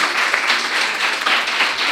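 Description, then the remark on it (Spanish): A small audience applauds steadily after being asked to give a person a round of applause, a dense wash of overlapping hand claps with faint voices underneath, fairly loud throughout the short burst. “Un aplauso, un aplauso, un aplauso”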